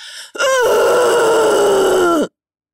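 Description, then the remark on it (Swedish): A single voice lets out a loud, sustained roar lasting about two seconds, imitating a growling demonic bellow that slowly drops in pitch before cutting off abruptly, with no other talk. “Så att jag, jag tar och vrölar och bara morrar och sen gör jag ett avgrundsvrål.”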